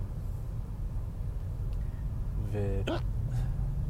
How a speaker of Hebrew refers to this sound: אז אני מצטער, אתם תשמעו אותי מגהק ו... תוקע מיני גרפסים במהלך הפרק הזה.